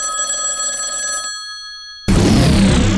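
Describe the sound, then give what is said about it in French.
An internet phone call's ringing tone sounds steadily for just over a second, leaves a thin lingering hum, then gives way abruptly to a loud, dense burst of noise as the line connects. “grâce à la magie d'Internet, allons appeler SP”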